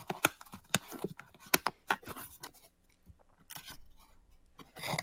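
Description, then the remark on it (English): Crinkling, scraping and sharp snipping sounds as the box of a Lekato WS80 wireless guitar system is cut and opened for unboxing, with a burst of rustling packaging near the end; no one speaks. “Let's do an unboxing here. see what's in here.”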